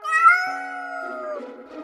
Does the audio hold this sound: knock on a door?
no